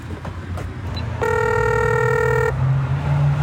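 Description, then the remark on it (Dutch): A bell rings once as a steady, buzzy electronic tone lasting just over a second, rich in harmonics, over a low background rumble with no talking. “Even kijken, is het een bel?”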